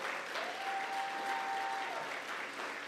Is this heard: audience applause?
yes